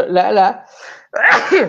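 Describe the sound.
A short voiced inhale and breathy pause, then a single loud, sudden sneeze bursting out.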